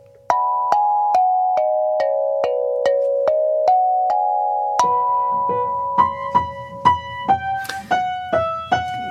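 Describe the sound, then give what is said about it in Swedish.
A small Meinel Mini Steel Tongue Drum in B major rings out a bright melody of single struck notes with long sustains, then a faster, busier passage with layered tones and light percussive taps underneath. No voices. “Men enligt Meinel så heter den Mini Steel Tongue Drum i B major.”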